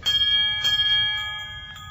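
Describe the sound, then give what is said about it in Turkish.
A doorbell rings at Marcel Monsin's door, its bright metallic chime sustaining with several overlapping tones that slowly fade, with no voices over it. “Hadi hadi yorum yapmayı bırak da kapıyı çal.”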